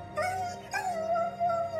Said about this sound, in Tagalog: Nakatitig doon halos kumalas ang puso sa dibdib ko nang mapakahol ang aso dahil sa sakit.